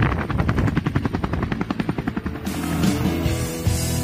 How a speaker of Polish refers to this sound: No a ja tymczasem widzę, że tutaj na plaży obok mnie ląduje helikopter